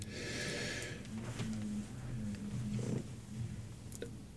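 A deep, airy inhale, followed by a stretch of held breath with only low, faint rumbling and a brief soft exhale near the end.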